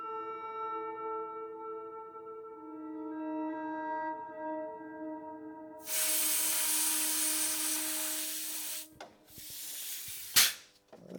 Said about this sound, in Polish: To jest sprężone powietrze. Przy podłączeniu klimatyzacji sprawdzamy wcześniej sprężonym e, powietrzem, czy jest szczelny. Jest szczelny, bo powietrze trzyma w chłodnicy.